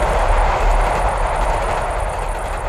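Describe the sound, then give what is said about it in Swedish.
An express train rushes past 8.3 metres away, a loud, steady roar with deep rumble underneath and a thin high whine on top, continuous for the whole moment with no voices. “Med fara för eget liv upptar jag nu ljudet av förbipasserande expression!”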